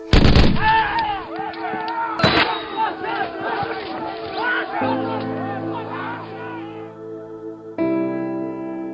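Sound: gunfire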